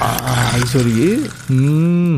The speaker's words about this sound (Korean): 덥다 하시는 분들 이 소리 시원하죠. 맥주캔 따는 소리입니다. 보물찾기예요. 네, 보물소리 미리 듣게 한 겁니다. 1부에 나가는 노래 속에서 이 맥주캔 따는 소리 여러분들 찾아보세요. 한 번 더 들려드리세요. 네. 시원한 소리입니다. 이제 콸콸콸 소리가 나면 더 좋았을 텐데.